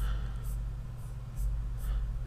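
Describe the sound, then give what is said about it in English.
Four short, raspy scraping strokes against a laptop, spaced about half a second apart, quiet over a steady low electrical hum, with no one speaking. “Y'all probably hear me scraping on the laptop,”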